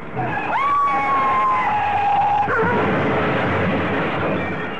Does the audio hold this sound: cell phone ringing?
no